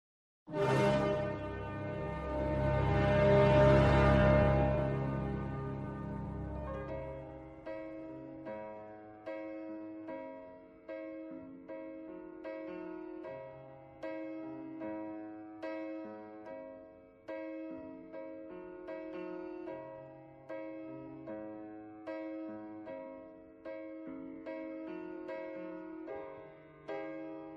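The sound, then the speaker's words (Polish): A dramatic orchestral swell opens a Bond-style pop song intro, settling into steady, repeating chords with a brooding, rhythmic pulse. Instrumental only, no singing yet. “do tego jest muzyka Bondowska i sztafaż bondowski”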